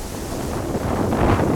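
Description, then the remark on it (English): Strong wind roars steadily across the open deck of a research ship at sea in the Pacific Ocean, about 250 miles off the coast of New Zealand, where a massive spool slowly unwinds thousands of feet of thick cable. The wind buffets the microphone with a constant, loud, rushing noise, faint surf beneath, no voices. “The wind is howling outside on the deck where a massive spool is slowly spinning, unwinding thousands of feet of thick cable.”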